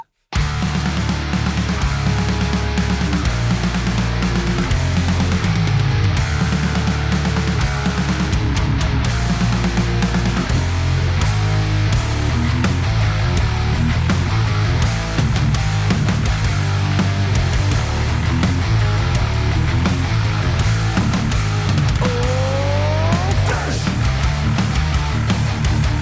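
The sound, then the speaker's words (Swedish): A band's latest single plays steadily and loudly throughout, with a driving bass line, layered instruments and a sweeping rising tone near the end, and no talking over it. “Och när vi ändå snackar om det, ska vi ta och lyssna lite på senaste singeln då?”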